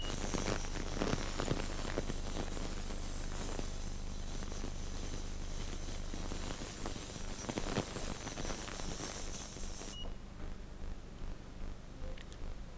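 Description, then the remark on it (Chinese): An ultrasonic cleaning tank, with a transducer at its bottom radiating ultrasound into the liquid, cleans a stained glass slide. It sizzles with a steady, dense crackling hiss over a low electrical hum; the hum drops out partway through and the bright upper edge of the fizz dulls near the end. “那么刚才这里面为什么发出滋滋的响声呢？”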